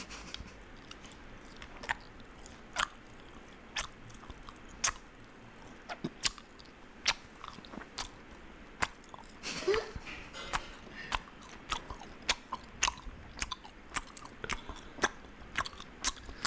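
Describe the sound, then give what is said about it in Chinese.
Loud, wet chewing of bean sprouts with repeated crisp crunches and bites in a steady, uneven rhythm, heard on its own with no talking for the whole stretch. “我有这种会嚼的声音。”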